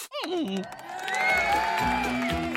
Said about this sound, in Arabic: هاي أنتم ما هذا؟ ما بالكم صامتين هكذا؟ أين التصفيق والهتاف؟